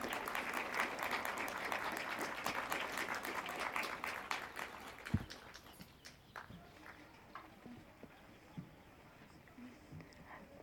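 A crowd applauds loudly with dense, steady clapping that fades after about five seconds into scattered claps, a soft thud and quiet shuffling.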